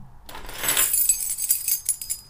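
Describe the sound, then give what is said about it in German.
A bunch of keys jangles, a dense metallic rattle at first, then lighter scattered clinks as the keys are shuffled and handled to unlock the door of Tiddys Maschinenraum, with no one speaking. “Hast du einen Schlüssel überhaupt?”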